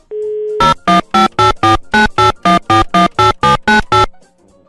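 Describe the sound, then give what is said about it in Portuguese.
Phone call tones as a host calls the first juror: a short steady hum, then about thirteen quick, evenly spaced electronic beeps in a rapid run, loud, with no voices. “Deixa eu ligar aqui pro primeiro, vamos lá.”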